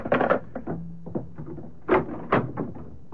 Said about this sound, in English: Hold on. There's a knock on the door, probably the waiter. He certainly took his own sweet time.